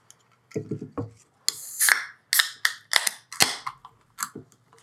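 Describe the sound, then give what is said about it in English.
Containers of a beer brewed in Reno and Sparks, Nevada being popped open: a quick series of sharp cracks and pops, several followed by a brief fizzy hiss, with some clinks and handling noise and no talking. “Let's pop these suckers open and give All them right. a little tasty taste.”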